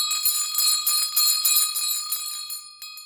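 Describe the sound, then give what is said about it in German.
Small gold bells on a red collar, as worn by a maneki-neko beckoning cat figure, jingle continuously in a bright, high-pitched shimmer, shaken in quick uneven pulses for about three seconds before thinning out at the end; no voices. “Typischerweise trägt sie ein rotes Halsband mit Goldglöckchen.”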